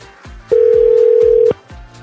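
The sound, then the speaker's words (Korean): A steady telephone ringback tone of a radio show calling a listener for a quiz sounds for about a second, a single flat electronic note over a repeating low thumping rhythm in the background, with no voices. “3610님께 전화 걸어봅니다.”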